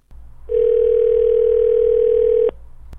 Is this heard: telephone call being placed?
yes